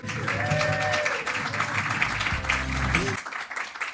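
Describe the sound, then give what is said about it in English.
An audience at an evening anecdote-game show cheers and claps loudly and steadily as the first competitor is brought on, dense applause with whoops and shouting voices rising over it, holding strong for several seconds before tapering off at the end. “Give him a big cheer.”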